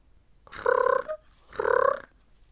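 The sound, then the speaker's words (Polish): Two loud, rattling snores from a grandfather asleep after putting out the lamp, each about half a second long with a brief pause between, throaty and buzzing like an old man snoring, with no talking around them. “Zachrapał dziadek.”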